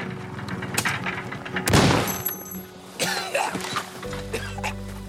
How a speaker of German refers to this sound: Aber auf halber Strecke fliegt mir die olle Mofa um die Ohren.